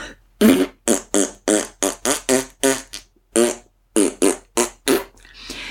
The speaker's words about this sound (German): Diese Püpse sind besonders wichtig, um zaubern zu können.